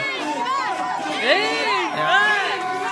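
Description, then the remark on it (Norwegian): A crowd in a venue cheers and shouts, many overlapping voices rising and falling in a loud, steady roar, with swells of excited, higher-pitched whoops throughout. “Men eh, skal vi høre på for ei stemning i lokalet der.”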